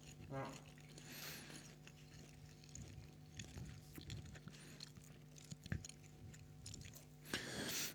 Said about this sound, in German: Schmatze.